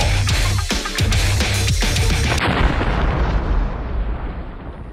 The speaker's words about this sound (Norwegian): Uh, så rocka intro med eksplosjon. Uh, så tøffe.